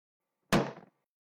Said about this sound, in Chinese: 听着响亮的关门声